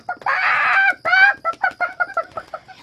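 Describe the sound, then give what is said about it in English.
A rooster jumps up and flaps its wings, letting out a loud, harsh screech, then breaks into a rapid run of cackling clucks that taper off, alone with no talking. “Suddenly, the cock jumped up and flapped his wings. He screeched and cackled.”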